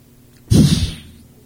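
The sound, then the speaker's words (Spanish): A person imitates a cat with one short, breathy hiss-like snarl that bursts out abruptly and fades within about half a second, with no talking around it. “Ya sonó como a gato, ¿no?”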